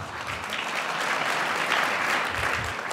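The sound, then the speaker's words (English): An audience applauds steadily while Mike Pence pauses in his speech, a dense wash of overlapping claps that holds at a fairly loud, even level for the whole stretch, with no voices standing out. “Pence pauses for applause.”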